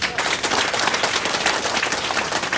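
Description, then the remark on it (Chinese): An audience at a talk gives itself warm, sustained applause, a dense crackle of many hands clapping at once, steady and fairly loud for the whole stretch, with no voices standing out. “给自己一个热烈的掌声。”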